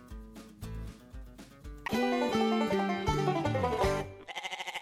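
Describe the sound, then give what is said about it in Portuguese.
A short musical jingle with layered melodic tones ends in a loud, quavering goat bleat, its wobbling pulses clear for under a second. “Pode Cabra, um podcast animal.”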